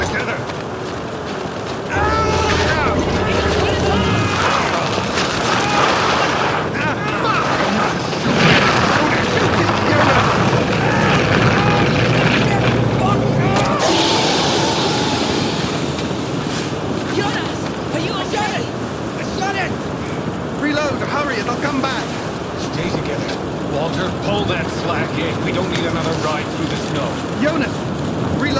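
A howling storm wind at outpost Fristed roars loudly and continuously for nearly the whole clip, thick and gusty, with a deep rumbling undertone through the first half that later thins out.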